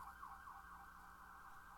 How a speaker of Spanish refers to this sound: Una ambulancia. Bailar al ritmo de la ambulancia. La ambulancia.